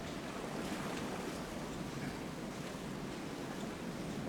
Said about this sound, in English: The submarine is now submerging. When the submarine is beneath the waves, it becomes invisible to other units and can only be detected by units with sonar, such as destroyers.